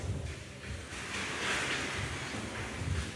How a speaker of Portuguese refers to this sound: Eu não sei você, mas esse vento vem em boa hora. Com um pouquinho de areia nos olhos.